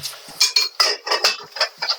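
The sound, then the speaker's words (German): Cutlery and dishes clatter and scrape as a man cooks in his garden hut, a busy run of quick, irregular clinks and knocks, about eight bursts in two seconds, with no one speaking. “Da schrappelt es aber ganz gut bei dem.”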